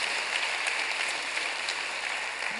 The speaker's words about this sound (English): The more you pray, the more you have prayers answered. Can you give God a round of applause for that? Absolutely.